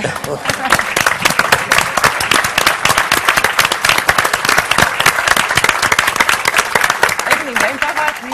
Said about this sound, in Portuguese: Umas palmas para a porta 33.